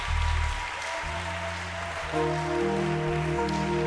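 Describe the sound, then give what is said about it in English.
A crowd claps their hands for Jesus steadily, a dense wash of many hands, while sustained organ or keyboard chords play over it and change every second or so. “Clap your hands for Jesus.”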